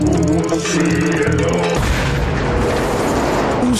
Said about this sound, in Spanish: Jala el hito que cuelga de su espalda y desata la más poderosa explosión nuclear